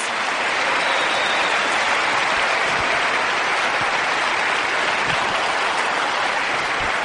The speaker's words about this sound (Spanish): Por favor, ayúdenme a darles un fuerte aplauso a cada uno de sus líderes, de sus diamantes.